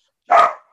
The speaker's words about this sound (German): Das ist der Hund.